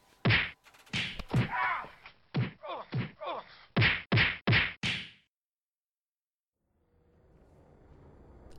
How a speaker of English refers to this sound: As you heard there, this fight is serious. Deadly serious.